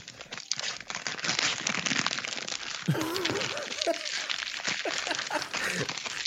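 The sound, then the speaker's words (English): Red, white and green gift wrapping paper with a green twisty ribbon is torn and crumpled, a continuous loud crinkling and ripping that runs throughout, with voices talking faintly underneath partway through. “really capturing the paper sound.”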